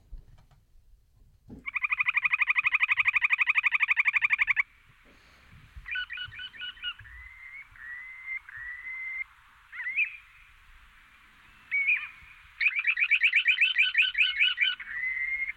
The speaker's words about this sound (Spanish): Funciona como alarma. Sí, esta especie de aves, este grupo de aves son todos muy sonoros en este sentido, parecen pues alarmas, ¿no? Y en este caso no iba a ser menos, que es el correlimos oscuro.